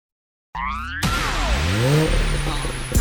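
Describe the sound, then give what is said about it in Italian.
A brief warbling, wobbly tone gives way to the loud engine of a brand-new car revving, its pitch swooping down and then climbing again over a dense roar, ending abruptly, in a radio advertisement for DAB+ digital radio. “Auto nuova fiammante col suono nuovo, è il da Plus che si sente a tuono, la provi e senti subito com'è che va.”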